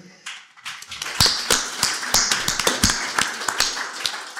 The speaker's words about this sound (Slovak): Zaslúžia si rozhodne váš potlesk